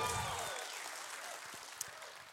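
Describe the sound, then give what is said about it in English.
A church audience gives God a hand clap of praise in a dense, steady wash of applause that gradually thins, with scattered sharper claps near the end and faint murmuring voices underneath. “we give God a hand clap of praise for his presence in this place today?”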